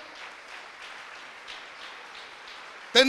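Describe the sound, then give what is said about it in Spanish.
An audience claps together for the Lord in a dense, steady patter of many hands at moderate loudness for about three seconds, then a loud voice suddenly cuts in at the end. “Aleluya, dele palmas al Señor.”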